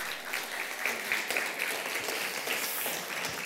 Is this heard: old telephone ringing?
no